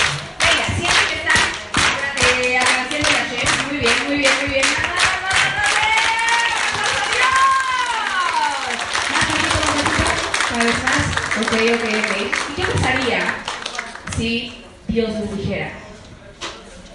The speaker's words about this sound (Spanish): Hoy es un día especial, venimos de alegría, cosas bonitas. Entonces, vamos a aplaudir.